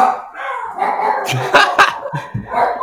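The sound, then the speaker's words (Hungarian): A dog barks and yips excitedly, a run of sharp, high-pitched barks mixed with whiny tones, filling the whole moment with no talking. “Jó következő negyed órát azt hiszem kutyaugatásban.”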